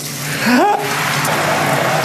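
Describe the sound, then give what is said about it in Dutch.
Warm shower water runs in a steady, hissing stream throughout. A man in yellow swim trunks holds the tap. A brief rising tonal squeal or voiced sound near the start quickly fades under the spray. “Lekker warme douche zo.”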